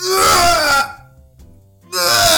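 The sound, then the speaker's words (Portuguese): A voice imitates a weightlifter's straining grunt at a gym: two loud, harsh, drawn-out bursts separated by a brief quiet pause. “Oh, todo o ginásio para para ouvir o homem que tão alto que ele grita, mano.”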